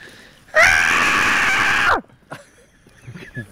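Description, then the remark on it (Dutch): A single long, harsh, high-pitched scream of a fox in mating season, lasting over a second, loud, then fading into quieter background sounds and faint movement. “Dat is echt dat. Een geile vos.”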